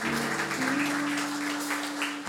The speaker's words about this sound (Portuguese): Salva de palmas para Jesus, porque só Ele é poderoso para fazer isso em nossos corações.